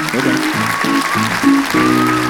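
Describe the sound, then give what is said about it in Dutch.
A large theater audience at Theater de Liefde in Haarlem claps steadily and loudly throughout, a dense wash of applause with voices calling and cheering mixed in, with no pauses. “We zitten in Theater de Liefde in Haarlem en we zijn niet alleen. Luister maar!”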